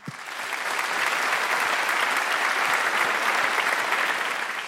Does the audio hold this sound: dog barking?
no